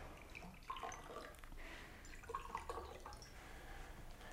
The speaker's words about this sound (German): Haben Sie was dagegen, wenn ich mir auch einen Whisky einschenke?